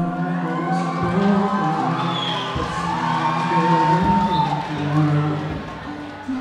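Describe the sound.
A large crowd roars and cheers loudly and steadily for several seconds, with whoops and voices rising through a dense, continuous wall of noise.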